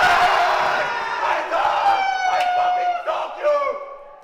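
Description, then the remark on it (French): Two teams of people in a hall shout and yell loudly and continuously, overlapping voices filling an echoing space with sustained, energetic cries that rise and fall in waves. “ça crie beaucoup, hein. ça crie énormément parce qu'il y avait que deux équipes du coup bah, présentes dans la salle.”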